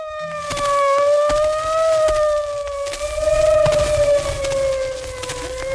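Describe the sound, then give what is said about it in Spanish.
The siren of a big white ambulance in a village wails steadily with a slow, gentle rise and fall in pitch, sounding loud, accompanied by scattered crackles and clicks throughout. “¿Y qué es ese ruido, Tomás? Ah? Es un niña, es un chuncho, hombre, un carro blanco grandote que le dicen ambulancia”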